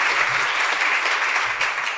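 A crowd applauds steadily, the dense patter of many clapping hands forming a continuous, fairly loud wash of sound that holds even throughout with no voices rising above it.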